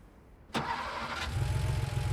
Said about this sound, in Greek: Έβαλα μπρος και απομακρύνθηκα.